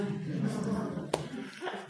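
A single sharp slap as the back of a hand strikes a face, brief and crisp, standing out above a steady murmur of voices.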